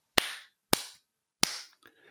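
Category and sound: human body sound, hand claps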